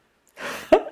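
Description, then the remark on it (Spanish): A quick breathy intake followed by a single abrupt, muffled burst: someone stifling a sneeze, held back, with no talking. “Estoy tratando de estornudar, pero no quiero.”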